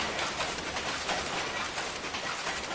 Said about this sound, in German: Dieses Klacken, das ihr hier im Hintergrund hört, das ist der Sound einer Doppelplüsch-Webmaschine. So hört sie sich im Original an.